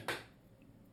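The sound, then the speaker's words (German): A mobile phone notification sounds once, a short crisp click-like blip followed by a faint, tiny chime, then near silence with low background hum and no voices. “Oh, das war mein Handy.”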